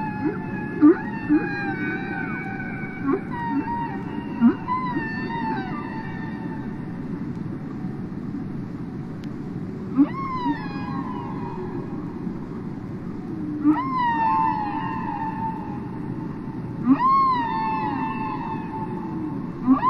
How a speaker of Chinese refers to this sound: 今天呢，我们要听的这张专辑非常特殊，是鲸鱼出的专辑啊，不是说哪个艺人的名字叫鲸鱼，就是海里面的鲸鱼出的专辑。我们先来听一听这张专辑的声音吧。